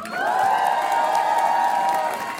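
An audience at a singer's live Côté Club concert on France Inter claps and cheers for her DJ for about two seconds, a dense wash of noise with a long, high, sustained whistle-like tone riding over it, no speech.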